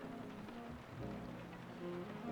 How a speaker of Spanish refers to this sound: Aparte con esta música de fondo es... Y ese ruido de lluvia. Eh, es bárbaro, ¿no? Yo me quedaría todo el día así.